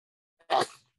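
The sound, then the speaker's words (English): A single sharp, fairly loud sneeze caused by allergies, with a faint catch of breath just before the explosive burst, which trails off quickly into silence. “Bless you.”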